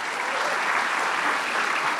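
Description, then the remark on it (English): A steady wash of audience applause for the first five Berkeley Lab scientists who presented, many hands clapping together at an even, sustained level for a couple of seconds, with no distinct voices breaking through. “How about some applause now for the first five?”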